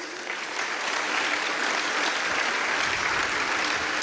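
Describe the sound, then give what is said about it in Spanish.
Loud, sustained applause from a crowd, a dense steady wash of clapping that fills the whole stretch without pause and with no voices standing out. “Dale un fuerte aplauso a Rey Reyes.”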